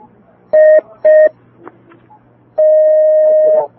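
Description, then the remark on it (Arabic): Telephone call-connecting tones: two short electronic beeps in quick succession, a brief pause with faint clicks, then one long steady tone, loud, with no talking. Another listener call is being put through on a call-in show with a sheikh. “حياك الله يا اخي الكريم اهلا وسهلا بك تاخذ اتصال اخر”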